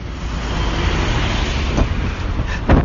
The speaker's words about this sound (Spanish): Ya que pasa el camión.